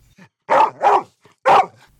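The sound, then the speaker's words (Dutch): A large wolfhound barks three times, loud: two quick barks together, a short pause, then a third. No one speaks. “Soms wordt Don Bosco afgebeeld met een grote wolfshond.”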